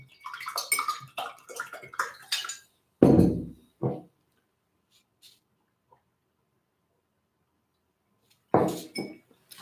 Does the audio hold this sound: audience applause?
no